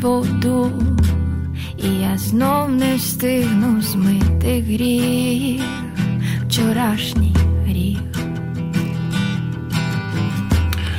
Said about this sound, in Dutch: U hoort een Oekraïns nummer op de achtergrond.